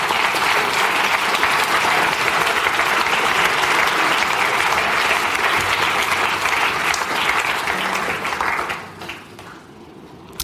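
Sustained audience applause at a church baptism service, a dense wash of many hands clapping at steady loudness for about eight seconds before quickly fading out near the end.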